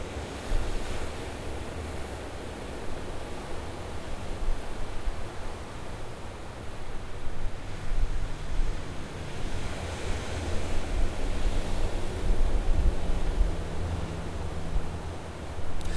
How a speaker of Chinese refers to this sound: 甚至于啊，你可以试着闭上眼睛，用听觉的视角，从我的角度，你来感觉这个海浪的声音啊，你会觉得更不太一样哦。